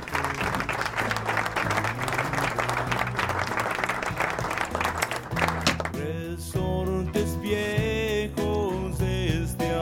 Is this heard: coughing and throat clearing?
no